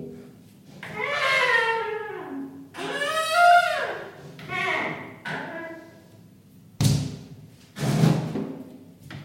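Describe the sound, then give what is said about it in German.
A sliding shower door squeals in several long, high-pitched creaking glides, fairly loud, then shuts with two dull thuds near the end. “Äh, die Türen von der Dusche klingen übrigens wie eine Mischung aus ich überfahre eine Katze und ich drehe einem kleinen Kind den Arm um.”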